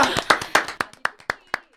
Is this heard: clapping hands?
yes